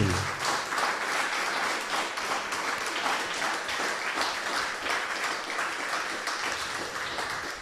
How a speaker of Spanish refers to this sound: Así que fuerte aplauso a ese pastor.